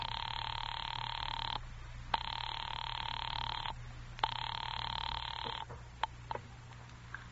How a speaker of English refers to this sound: Ringing Murray Hill 40098.